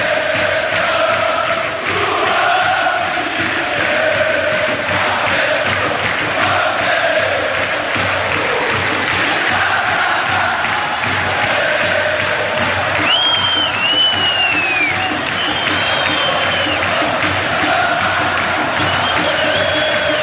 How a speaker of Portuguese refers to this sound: Você ouviu a torcida do Flu cantando o tema de João Paulo II.